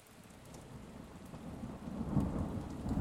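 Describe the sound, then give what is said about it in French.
Steady rain falls in a dense, hissing wash, growing slightly heavier, with a low rumble underneath like thunder. No voices, just the continuous patter of countless drops. “Écoute maintenant le son de la pluie. Dessine-la tomber sur ta terre en innombrables gouttes.”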